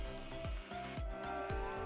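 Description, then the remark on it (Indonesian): A hand tool rasps against scrap wood left over from furniture and birdcages in steady back-and-forth strokes, about two per second, moderately loud with no voices, in a woodworking workshop in a narrow corner on the second floor of a house in the Baren area of Malang, East Java, Indonesia. “Pengalaman bertahun-tahun bekerja di bengkel kayu menjadikan Heri ahli dan terampil memainkan gergaji, gerinda, hingga ujung mata pisau ukir”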